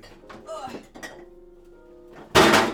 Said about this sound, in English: I'm gonna I'm gonna crack a beer too, actually.